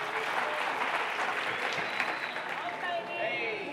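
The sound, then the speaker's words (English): Sustained applause from a sizable audience, a dense wash of clapping that holds steady and fairly loud throughout, with faint voices mixed in near the end. “Let's give it up for them. We love them.”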